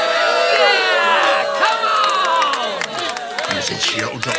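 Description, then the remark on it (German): A dense concert crowd roars and cheers continuously before the band has started playing, with many overlapping high-pitched shouts and whoops, loud and sustained throughout, growing slightly more ragged toward the end. “Hört auf, Leute! Hört auf, beruhigt euch!”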